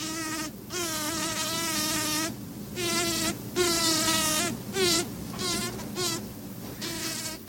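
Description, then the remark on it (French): A bumblebee's high-pitched sonication buzz on a clover flower, coming in several close, loud bursts of about a second each, separated by brief pauses, with no voices. “Un grésillement, un vrombissement aigu de quelques dixièmes de seconde ou quelques secondes, puis un silence, puis un nouvel accès de grésillement.”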